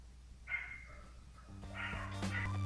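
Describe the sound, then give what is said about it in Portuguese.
Dogs bark in two bursts: a short yap early on, then a busier, overlapping cluster of barks over a low steady hum. The barks are moderately loud and there is no talking. “Não importa quantos cachorros estejam latindo.”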